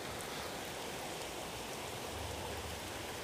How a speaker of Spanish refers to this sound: No sé si pueden escuchar el sonido los perros obviamente, por el sonido del agua, de la lluvia, en este pequeño río en el que estamos caminando ahorita. Aquí está el ruido, no sé si lo pueden escuchar, el sonido del agua.